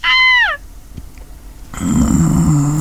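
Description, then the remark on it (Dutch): A dog gives one sharp, high yelp that trails downward, then after a short quiet pause a low, rumbling growl builds and continues loudly to the end. No one speaks. “Vooral als die honden aan het blaffen zijn hier.”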